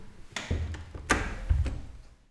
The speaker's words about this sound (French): On va fermer la porte pour être tranquille.